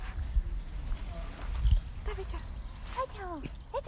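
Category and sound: animal, dog whimpering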